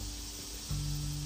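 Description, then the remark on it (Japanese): A steady drone of cicadas buzzing outdoors in summer, heard through an open window after a typhoon passed that morning, a continuous hissy wash with no pauses, joined partway through by a low hum. Nobody speaks. “今日は今朝台風が通り過ぎたんですかねちょっと今窓を開けてねあのやってるんでセミの声がちょっと聞こえるかと思いますがまあこれも夏ということでいいかなと思ってちょっと窓閉めるのをやめてみました”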